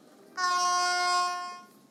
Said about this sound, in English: What was that? That's supposed to be an air horn.